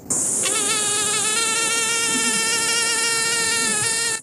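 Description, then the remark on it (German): A female mosquito's thin, high-pitched wingbeat whine drones steadily for about four seconds, a continuous buzzing tone with no voices. “Der hohe Ton, der uns nachts verrückt macht, kommt von den Flügelschlingen der weiblichen Stechmücke, die dadurch die viel kleineren männlichen Stechmücken anlocken kann.”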